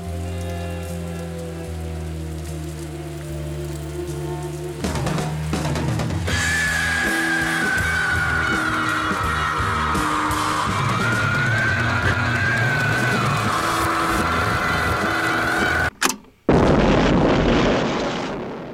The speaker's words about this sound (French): Ça, c'était Michelangelo Antonioni, Zabriskie Point, la plus belle explosion du cinéma.